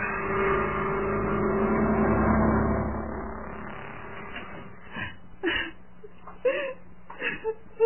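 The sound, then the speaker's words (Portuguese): A steady engine-like rumble fades out, then a woman cries in short, broken sobs and whimpers, coming in uneven bursts over the last few seconds. “Por que você está chorando?”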